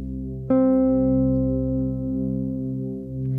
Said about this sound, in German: Es gibt ja immer eine kleine Gehörbildungsübung bei uns. Hier ist der Grundton C.